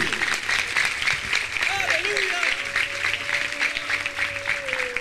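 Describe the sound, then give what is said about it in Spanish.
An audience claps for God steadily in a dense, sustained wash of applause, with a held tone and brief voices rising underneath the clapping throughout. “Dele palmas a Dios.”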